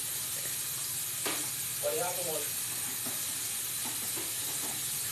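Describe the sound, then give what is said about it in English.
Steady running-water hiss fills the background as dishes are washed, broken by a few faint clinks and clatters of dishes, with a brief murmur of a voice partway through. “How loud are the dishes behind me?”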